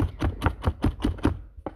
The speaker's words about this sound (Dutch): je hoort me nu selen hakken. ik eh, ben aan het koken voor borsic morgen.